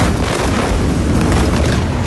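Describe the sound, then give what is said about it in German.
A large explosion in the port of Beirut in the late afternoon, the stronger blast following a smaller one, roars loudly: a deep booming blast that rolls on as a continuous wall of rumbling noise for a couple of seconds, with no voices. “Zunächst kommt es am späten Nachmittag im Hafen von Beirut zu einer kleineren Explosion. Sekunden später folgt eine deutlich stärkere.”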